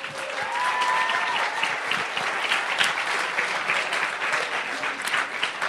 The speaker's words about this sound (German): Genau, kleinen Applaus.